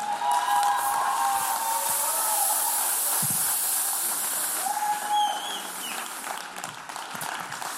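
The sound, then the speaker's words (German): A loud, dense wash of audience applause fills the whole stretch, steady and hissing, with a few cheers or whistles poking through; it eases slightly toward the end but keeps going. “Lasst uns ihm einen richtig fetten Applaus geben.”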